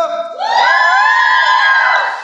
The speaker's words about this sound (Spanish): Eh, para las personas que están aquí, si quieren acompañarnos después, ustedes también que están aquí en nuestro adorado público, hagan un grito.